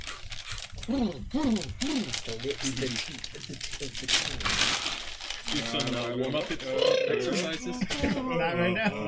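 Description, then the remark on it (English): A cough drop wrapper crinkles in quick, irregular bursts of sharp crackling, running steadily underneath a person talking throughout. “I'm going to pop a cough drop.”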